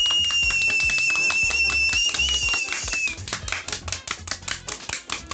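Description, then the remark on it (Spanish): Loud, dense applause for the LGBTTIQ+ community, with a high, sustained whistling tone over the first few seconds, then the clapping thins into a looser series of distinct, rhythmic claps. “Y este es un aplauso para toda la comunidad LGBTTIQ+. ¡Aplausos!”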